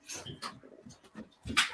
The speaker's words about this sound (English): Okay. Sorry about the dogs again.